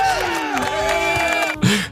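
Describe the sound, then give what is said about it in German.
A live audience at a show recording cheers and whoops loudly over scattered applause, many voices rising and falling together for a couple of seconds, with a sharp burst of shouting near the end. “Wir zeichnen heute das erste Mal vor Live-Publikum ob ihr jetzt vielleicht gehört habt.”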